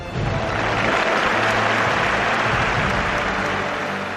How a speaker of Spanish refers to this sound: Los aficionados también se merecen esta ovación